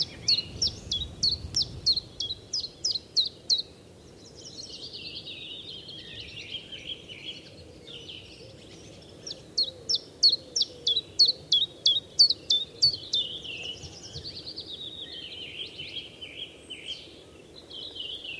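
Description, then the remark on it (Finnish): A common chiffchaff sings two runs of about ten even, high chip notes at a steady pace, each followed by softer twittering from other birds over a low rumble of background noise. “Kuunnellaan hetki tätä ääntä, joka on vasta viikkojen päästä kuunneltavissa, eli tiltaltti.”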